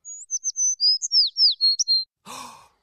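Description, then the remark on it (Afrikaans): A small bird that had flown into the studio chirps in a quick run of about a dozen high, clear, bright tweets and trills, followed by a short breathy sigh-like sound at the end. “Julle het reg gehoor, dis 'n voeltjie.”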